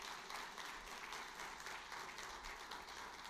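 Steady applause from an audience, a dense wash of many hands clapping at once, sustained and fairly even in loudness throughout with no voices standing out.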